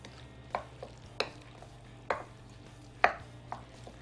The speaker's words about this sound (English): Into our currant egg honey mixture over here. the reason why you wouldn't want it to be too hot when you put this in here because you don't want the eggs to cook immediately. Egg yolks. It should be okay. fork goes in. toss that around.